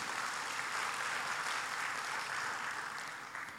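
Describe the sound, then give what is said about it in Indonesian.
A church audience claps for God in a dense, steady burst of applause that holds for several seconds and eases off slightly at the end, with no voices heard over it. “Yang mau jadi donatur berikan tepuk tangan buat Tuhan.”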